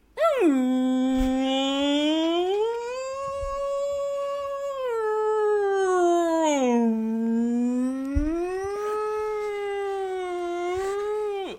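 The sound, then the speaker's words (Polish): A person imitates a whale call with one long, continuous, wailing vocal moan that slowly rises and falls in pitch for over ten seconds, loud, with no other talk. “Pływają sobie dwa wieloryby i jeden wieloryb mówi”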